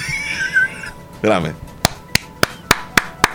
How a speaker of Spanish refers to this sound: Ahí está. aplaudo